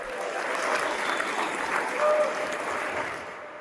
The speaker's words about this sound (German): Für dieses Versprechen erntet er ordentlich Applaus.